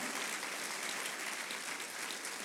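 An audience applauds the Lord together, a dense, steady wash of many hands clapping at once for a couple of seconds with no voices standing out.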